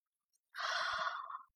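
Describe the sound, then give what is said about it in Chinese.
A man in a car gives a single breathy yawn lasting about a second, rising in quickly, holding steady, then trailing off softly, with no talking around it. “刚出发的时候，他还在车上兴冲冲的谈天说地，没多久就打起了哈欠。”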